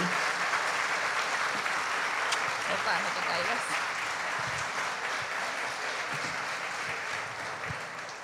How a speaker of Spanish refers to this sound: Lo recibimos con un fuerte aplauso, sí.